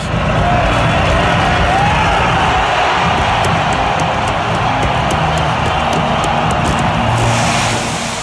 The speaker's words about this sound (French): Les Ivoiriens ont battu le Nigeria de Buzin hier soir en finale. Ça se passait à Abidjan dans un stade acquis à la cause des éléphants avec le public qui chavire quand son équipe reçoit le trophée.